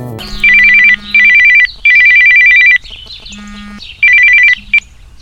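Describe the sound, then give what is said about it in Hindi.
A telephone rings in repeated electronic bursts, a rapid trilling tone in four pulses with short gaps between them, loud, with faint chirps in the background. “पर तभी एक दिन तपंदा के फोन ने उसकी जिंदगी में सुना मिला दी”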